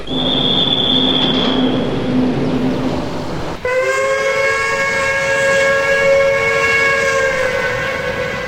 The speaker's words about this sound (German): Damen und Herren, in unserer Sendung auf der Bundesbahn nachts um halb eins im Intercity von Bremen nach Fegesack sind wir jetzt im Speisewagen angekommen.